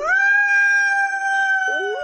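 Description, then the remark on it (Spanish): A long, steady Iberian wolf howl holds one sustained pitch for about two seconds, loud, with a second voice rising in near the end. No talking. “El lobo ibérico en España se enfrentó en la década de los 70 a las campañas de extinción de alimañas, promovidas desde las autoridades y que permitieron realizar envenenamientos indiscriminados o la destrucción de su hábitat.”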